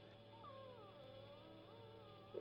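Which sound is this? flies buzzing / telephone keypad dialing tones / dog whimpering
dog whimpering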